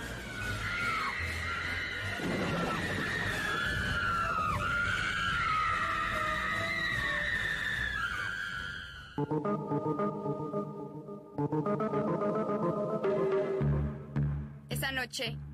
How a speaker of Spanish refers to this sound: Nazario escuchó el galope de un caballo.